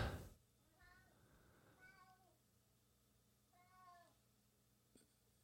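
A cat named Leonidas, about 15 years old and weighing about 25 pounds, meows three times, with pauses between the calls. The last meow is the longest and most drawn out. The cries sound somewhat soft, and nobody speaks.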